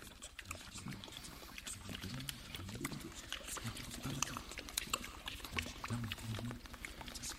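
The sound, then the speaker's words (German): Water bubbles and gurgles continuously with dense little pops and splashes, fading and dying away, mixed with low, grunting murmurs underneath, holding at a fairly steady, moderate level throughout, closing a fusion of jazz improvisations with speech fragments. “beenden die bemerkenswerte Fusion von Jazz-Improvisationen mit Sprachsplittern im verebbenden, ersterbenden, aber doch bleibenden Blubbern des Wassers.”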